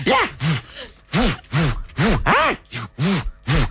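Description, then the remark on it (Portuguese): A voice imitates kung fu fighting shouts: about eight sharp, loud cries in quick succession, each rising and falling in pitch, with no other talk. “Agora, levávamos calduços acompanhados de gritos e efeitos sonoros.”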